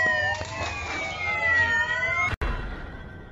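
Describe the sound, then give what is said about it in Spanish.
A police patrol car siren wails steadily with a slowly descending pitch, loud, over a low rumbling engine and traffic noise, cut off briefly by a sharp gap near the end. “Eh, güey, ya lo, ya lo subieron a la patrulla.”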